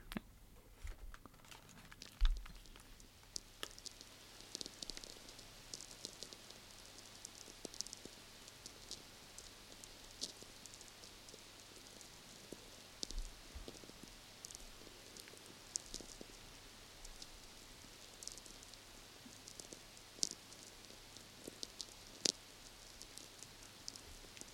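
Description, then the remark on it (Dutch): A VLF (Very Low Frequency) radio recording: a steady bed of static hiss dotted with irregular ticks, pops and crackles, plus a faint low hum beneath. No one speaks. “Een beetje ruis, getik. Ja. Gepop en, en ge, gekraak.”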